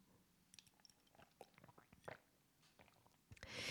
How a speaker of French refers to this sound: Je bois une petite gorgée d'eau.